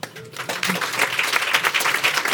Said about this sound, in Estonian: tänaseks on meil aeg lõppenud, et suur-suur äh, tänu kõikidele panelistidele, nad väärivad aplausi.